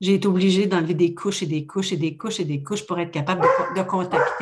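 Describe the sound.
A dog barks several times, its short barks mixed in with and partly under a woman's continuous talking.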